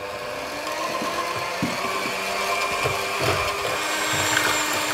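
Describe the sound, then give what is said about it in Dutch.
An electric mixer whirs steadily through batter, a continuous high motor hum with a few soft knocks and bumps underneath, holding at the same level for the whole stretch. “Oké, dan gaan we dat dus verder mixen.”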